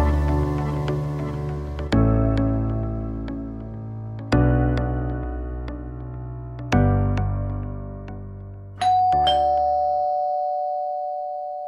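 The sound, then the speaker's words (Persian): A chiming electronic intercom doorbell at a home rings out in a repeating melodic pattern, each strike ringing and fading, ending in a sustained higher tone like an intercom buzz, as the mother opens the door with the intercom. No one speaks. “به محض اینکه مامان با آیفون در رو باز کرد”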